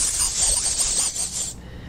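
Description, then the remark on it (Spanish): A person imitates a snake's hiss with one steady, sharp, breathy sss held for about a second and a half, then cut off abruptly, with no other talking. “Ya ves que la serpiente como la hace”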